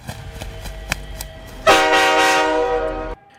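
A freight train horn blasts loud for about a second and a half, a rich sustained tone. Before it comes a steady rhythmic clacking of rail wheels.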